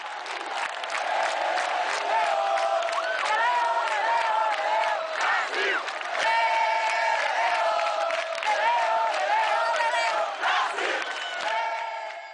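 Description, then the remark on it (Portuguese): A huge stadium crowd of Brazilian football fans chants the traditional song "Eu sou brasileiro, com muito orgulho, com muito amor" in unison, loud and sustained throughout, with voices rising and falling together and a roaring, echoing mass of cheering underneath. “a torcida brasileira que sempre com sua empolgação e cheio de carisma grita um tradicional Eu sou brasileiro com muito orgulho, com muito amor.”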